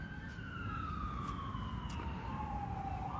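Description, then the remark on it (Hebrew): An emergency siren wails in a long, slowly falling tone with a fainter harmonic above it, steady and fairly loud over a dense rumble of background noise, with no one speaking. “אתם שומעים את הסירנה, אני לא צריך להגיד לכם.”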